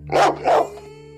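A dog barks twice in quick succession, fairly loud, each bark short and sharp, with a faint steady hum lingering underneath.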